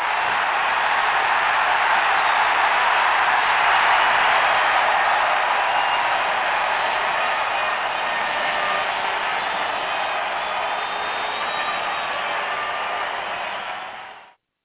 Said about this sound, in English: The crowd goes wild.